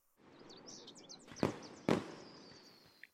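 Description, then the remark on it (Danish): Two sharp fireworks pops burst out about half a second apart, moderately loud, while birds chirp and twitter in the background over a steady outdoor hiss. “Det er jo fyrværkeri, siger Geo begejstret.”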